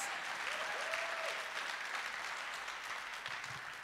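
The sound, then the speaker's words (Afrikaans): An audience applauds a group of kids steadily, a dense wash of many hands clapping at once, sustained and fairly even in loudness, with faint cheering or a brief voice rising through it. “Can we give these kids a round of applause?”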